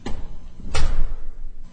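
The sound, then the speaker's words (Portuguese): A door of an office is pushed shut, landing with a single solid thud and a brief rattle, preceded by a softer knock as it swings, with quiet background noise around it. “Entre e encoste a porta, por favor.”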